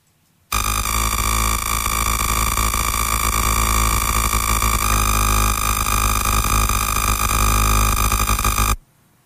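The very short pulses of an airport surveillance radar come through as a loud, steady, buzzing whistle rich in harmonics, holding unchanged for about eight seconds before cutting off abruptly. No one speaks.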